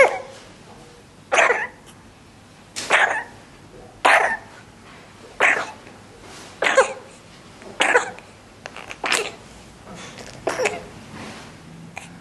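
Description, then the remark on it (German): An infant's RSV cough, coming from the lower airways, repeats about nine times in a steady series, each short, harsh burst spaced roughly a second apart, fairly loud with no talking around it. “der RSV-Husten ist eben ein, ein Husten, der kommt aus den unteren, ähm, aus den unteren Atemwegen des kleinen Säuglings”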